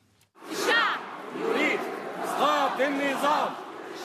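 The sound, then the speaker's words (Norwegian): Several hundred journalists at the Journalists' Union in Cairo, Egypt, chant slogans against the regime, President Mohammed Morsi and the Muslim Brotherhood, in unison, loud and rhythmic, with rising and falling voiced cries repeating over several seconds amid a dense wash of many voices. “Flere hundre journalister roper slagord mot regimet, mot president Mohammed Mursi og mot Det muslimske brorskapet.”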